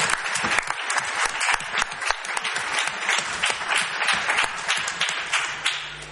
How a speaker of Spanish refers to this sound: Un aplauso, yo creo, para, esa lectura que abre el acto.